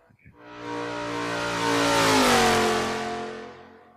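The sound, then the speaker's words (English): A V8 engine with loud exhaust pipes revs up hard, its deep harmonic roar rising to a peak around the middle and then easing off, continuous for several seconds. “What was that? A V8?”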